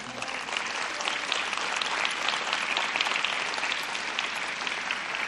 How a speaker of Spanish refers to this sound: Denle un aplauso al Señor.